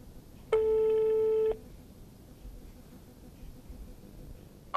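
telephone ringing tone

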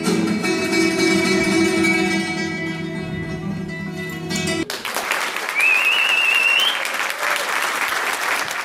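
concert audience applause

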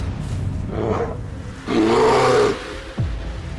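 bear roaring

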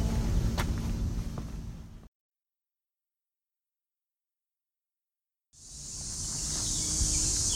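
cicadas buzzing

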